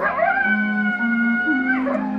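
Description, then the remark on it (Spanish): A coyote howls in one long, sustained cry that slides up, holds steady, then bends and falls away. It sounds loud, with no other sounds around it. “Solo se oye el aullido del coyote.”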